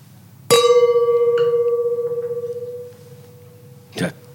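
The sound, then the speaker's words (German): Wine glasses clink together at a wine storage and tasting venue in Hamburg with a bright, clear ring that hangs in the air for a couple of seconds, followed by a softer touch and one more brief clink, over a low background murmur. “Ah, vielleicht lassen wir die Gläser klingen, weil das ist auch ein schöner Sound, oder?”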